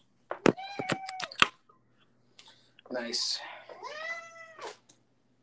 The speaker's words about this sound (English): Is that a cat?